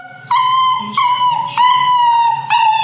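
A dachshund lets out a loud, drawn-out, high-pitched howling whine that rises and breaks into several connected pulls over about three seconds, with no one talking.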